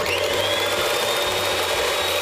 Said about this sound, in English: So, I broke Marzia's mixer. Sorry, Marzia. I think it needs to be thicker, so I'm gonna whisk her.